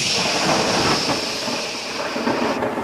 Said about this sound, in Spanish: Van caminando, llegan a la montaña, cuando llegan a la montaña están por acampar cuando ¡boom! empieza la lluvia.